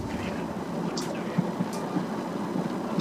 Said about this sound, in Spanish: pareciera que estuviera en un barco con la lluvia y las olas y demás, pero no, está en un carro